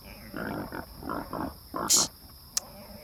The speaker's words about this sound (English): You pigs. Ah, keep quiet. You shout and shout.